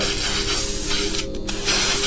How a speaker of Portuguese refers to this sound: Eu chacoalho com uma latinha de spray de pichação. Aí eu saio assim, ó.